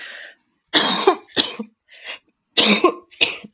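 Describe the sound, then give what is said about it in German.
A bout of coughing and throat clearing: several loud, rough bursts in quick succession, with short gaps between them, and no speech over them. “Tut mir total leid. Ich habe gerade irgendwie einen Frosch im”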